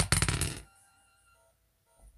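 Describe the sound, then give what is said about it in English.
A quick burst of hard clattering as dice, rolled in a game to determine attack damage, tumble across a tabletop for about half a second, then a faint settling rattle as they come to rest, with no voices. “Well, that doesn't deal damage, but let's do a dice roll to determine how much damage that'll add to your next attack.”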